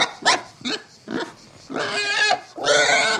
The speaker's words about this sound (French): Du trou sort un cochon, puis un autre, grognant comme des fous.